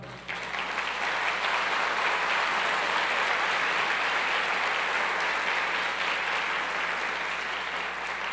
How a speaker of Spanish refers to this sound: ¿Cuántos lo creen? El Señor se merece un aplauso.